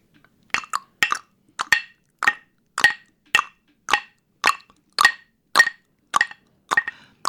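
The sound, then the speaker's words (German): Wooden blocks are knocked together in a steady clip-clop rhythm, about a dozen crisp, hollow knocks, some in quick pairs, imitating a horse's hoofbeats. The knocks are clear, with no talking. “Das Pferd. Das ist ein Pferd.”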